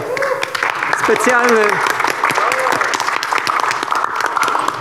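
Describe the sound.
Steady applause from an audience for the winner of a game that ended 6-4, a dense patter of many hands clapping throughout, with a voice speaking over it partway through.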